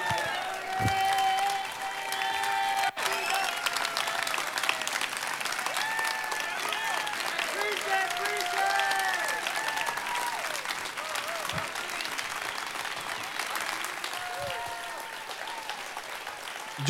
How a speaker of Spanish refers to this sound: Y para mí, un papá o un abuelo que escucha eso, lo mínimo que debería hacer es ponerse de pie, aplaudir y darle un grito de júbilo y de agradecimiento a Dios.